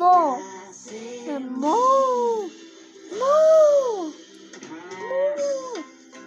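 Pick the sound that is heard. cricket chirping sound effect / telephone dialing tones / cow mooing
cow mooing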